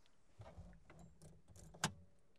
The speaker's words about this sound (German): Warte mal, wenn ich den Schlüssel rausziehe, geht denn das Display da vorne? Ah, nee, natürlich nicht.